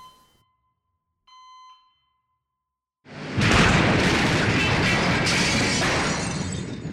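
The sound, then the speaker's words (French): A couple of faint electronic beeps, a moment of silence, then a sudden loud explosion inside an infirmary bursts in and keeps roaring and crackling as scraps of metal are thrown into the entrance. No one speaks. “Une explosion à l'intérieur secoua l'infirmerie, projetant des morceaux de ferraille dans l'entrée.”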